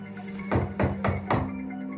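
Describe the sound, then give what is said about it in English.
Four solid knocks on a door in a quick, even rhythm, each a dull thud, heard alone against a faint steady background hum. “I figured it was some teens playing knock knock ginger and went back to the couch semi awake now, I started to finish my wine when I heard another knock.”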